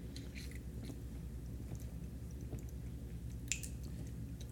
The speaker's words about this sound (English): All right, gonna take a quick hydration break here. You got water near you? Drink up, man. Hydrate.